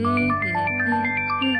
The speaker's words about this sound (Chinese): 突然电话铃声响起，她看了看桌上小闹钟的时间，应该不是李海打来的。